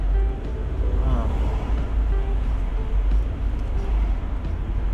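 Steady, loud low rumble of a car interior on the move, with continuous road and engine drone and a faint higher whine, unbroken throughout.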